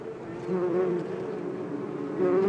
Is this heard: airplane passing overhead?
no